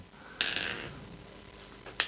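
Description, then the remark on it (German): A corkscrew spiral grinding against a cork but failing to twist in, only the handle turning: two sharp metallic scrapes, about a second and a half apart, with faint creaking and squeaking in between. No one speaks. “Das dreht schon gar nicht rein, die Spirale.”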